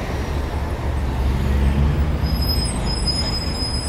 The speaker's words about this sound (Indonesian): Karena bising dengan suara kendaraan, ia menjauhi